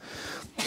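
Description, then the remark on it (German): A single short sneeze bursts out, a sharp, breathy blast after a brief quiet intake, with no talking around it. “Gesundheit. Danke.”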